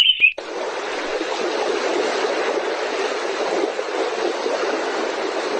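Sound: babbling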